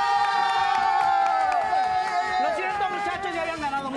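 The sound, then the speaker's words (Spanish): A studio audience cheers and whoops loudly over steady applause as team 1 is introduced, a dense roar of many voices that holds strong for the full few seconds without a break. “Les presento al equipo 1. Aplausos, tres aplausos.”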